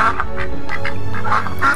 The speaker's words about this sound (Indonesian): Suara itu terdengar lagi. Nah, jelaskan, Itu suara bebek, kata si Suani. Bukan sayang, itu ayam. Aku yakin betul itu ayam.